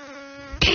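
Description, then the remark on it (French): A voice imitates a buzzing wasp with a steady, nasal drone held for most of a second, then bursts into a louder, harsher buzz at the end. “tu sais faire le bruit d'une guêpe, ouais”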